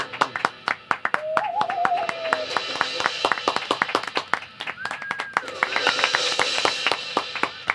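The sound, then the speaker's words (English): An audience applauding with dense, steady clapping throughout, punctuated by a couple of wavering whistles and some faint cheering voices in the background. “So I I'll, I'll shut up now, and we'll just come in applauding.”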